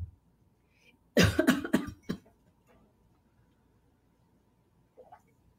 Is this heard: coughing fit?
yes